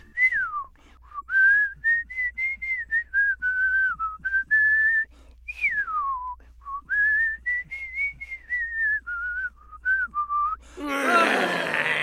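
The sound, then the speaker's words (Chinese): An old man whistles the theme tune of a Clint Eastwood American western film, titled 'Huangye Da Biaoke' in Taiwan, a single wavering melody line rising and falling over about eleven seconds, ending in a short burst of breathy noise. “我跟他啊在大学时候感情很好，因为我们都喜欢小时候有一部美国西部电影，Clint Eastwood 所演的一个呃台湾翻成《荒野大镖客》，我还记得那个主题曲是口哨吹的。”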